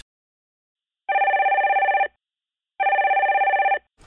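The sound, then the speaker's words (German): A telephone rings twice with electronic trilling bursts about a second long, separated by a pause, loud with no talking: an incoming call at the 144 emergency call centre. “Wir hören, was in der Notrufzentrale 144 abgeht, wenn das Telefon läutet und was Sanitäterinnen und Sanitäter bei der Versorgung und der Rettung von einem Patienten alles erleben.”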